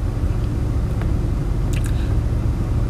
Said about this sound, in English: here's a little thing from the from the tropical storm Elsa. I'm going to turn this camera around right now. Okay. As you can see right now, it is it is pouring right now it's been coming down pretty hard.